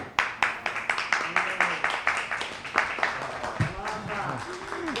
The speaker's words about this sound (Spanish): Que sepa que te han recibido con aplausos.